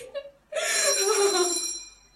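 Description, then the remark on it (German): A doorbell rings loudly and steadily for about a second and a half, a bright buzzing electric tone, preceded by a couple of faint short chirps. No voices accompany it. “Das ist meine Klingel.”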